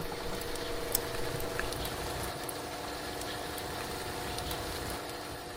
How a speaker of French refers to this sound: La pluie continue de tomber finement. L'air est frais. Le parking semble à demi rempli.